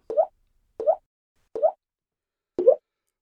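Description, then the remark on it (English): Water drips steadily from a tap next to a sink onto the back of a hollow plastic Tupperware container, four sharp plinking ticks in a slow, slightly uneven rhythm with silence between each drop. “next to the sink, where she noticed the tap drip, dripping water onto the back of a Tupperware container. It made a sharp tick, tick tick sound.”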